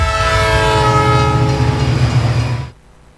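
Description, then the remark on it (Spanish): A loud train horn blares with a sustained, harmonic tone over the low rumble of a train passing through a city, then cuts off abruptly near the end, leaving faint background noise. “El tren es tan grande que se ve y su paso por la ciudad se escucha.”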